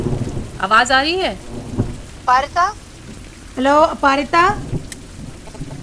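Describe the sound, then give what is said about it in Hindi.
Heavy rain hisses steadily through a phone line on a call with a bad connection, with low rumbling bursts like thunder, while a voice calls out in short phrases over the noise. “इतनी बारिश की आवाज आ रही थी फोन पे”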